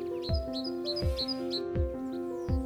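sparrows chirping

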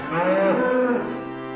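dairy cow mooing

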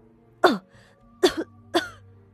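old woman coughing

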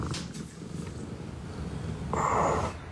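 cat purring

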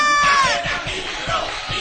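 club crowd screaming

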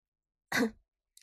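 a man coughing

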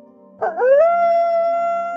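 wolf pack howling

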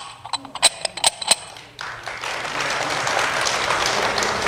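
audience applause

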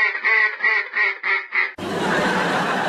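duck quacking

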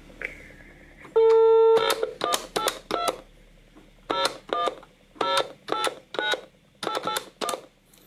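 telephone dialing tones

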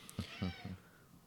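cat meowing

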